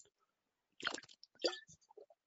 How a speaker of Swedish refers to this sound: Jag om ursäkt, det skulle bara en klunk vatten där.